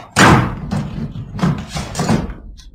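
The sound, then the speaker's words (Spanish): A wooden door is broken in, a panel of it smashed: a loud crash first, then several more forceful, splintering impacts at irregular intervals, harsh, with no voices. “Lograron romper un panel de la puerta y descorrieron los pasadores.”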